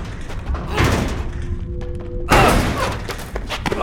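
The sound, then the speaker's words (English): A heavy thump as someone kicks a jammed door, then a louder, sudden crash as it bursts open, followed by rattling and clatter. No one speaks. “We're gonna try to break the door down.”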